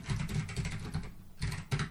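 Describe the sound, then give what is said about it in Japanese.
Rapid typing on a computer keyboard, a dense run of quick clicks with a brief pause near the end before a few more bursts of keystrokes. “めちゃくちゃタイピング速度速くないですか、なんか。”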